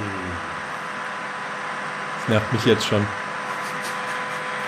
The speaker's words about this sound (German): Genau, spiel mal ein bisschen Föhngeräusch ein